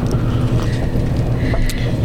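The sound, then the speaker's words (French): A steady low rumble fills the space inside a moving train, with a constant droning roar and faint rattles and hiss on top, and no voices. “je suis dans un train”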